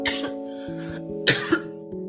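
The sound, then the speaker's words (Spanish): A fairly loud fit of coughing: several harsh bursts in quick succession with brief gaps between them, over a steady low hum, and no one talking. “perdón, y un ataque de tos.”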